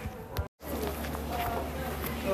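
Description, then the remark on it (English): Several footsteps of children tap across a hard floor at Catlin Gable school at an uneven pace, heard over a steady low background hum with faint indistinct murmuring, broken by a brief moment of silence near the start. “We chose to record footsteps because it captures the transition state of children and their learning mindset.”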